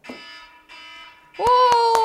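A timer buzzer goes off to mark time up: two flat, harsh buzzes with a brief gap, then a louder, longer sustained buzz punctuated by a few sharp clicks.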